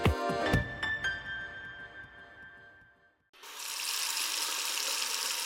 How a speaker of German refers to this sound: Was da gerade aus dem Wasserhahn fließt, ist so klar und frisch wie kaum etwas anderes. Gerade erst entstanden, könnte man denken.